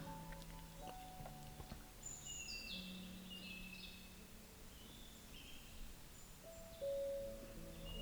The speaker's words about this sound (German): Du hörst Vögel zwitschern. Ein angenehmes Geräusch, so lebendig und freundlich.